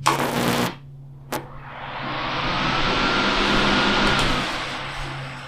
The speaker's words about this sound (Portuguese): É porque tá quente, é porque eu tô sem ventilador. Ó, oh, o que acontece se eu ligo o ventilador?